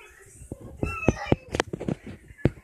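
A cat meows repeatedly, a quick series of short, insistent cries with a few brief pauses between them, fairly loud over faint background noise.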